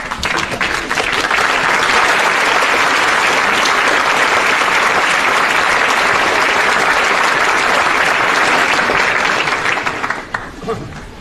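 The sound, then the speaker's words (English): A large crowd at the Cardigan class of 2017 graduation claps steadily and loudly for about ten seconds, a dense wash of applause that fades out near the end. “So I hope you will stand up and turn around and give them a great round of applause.”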